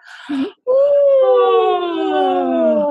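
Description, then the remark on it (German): Two people give a long, voiced yawn together as a vocal relaxation exercise, a breathy intake followed by a drawn-out tone sliding from high to low pitch over a couple of seconds, loud. “lass uns mal gähnen. Von oben runter, wirklich mit Ton.”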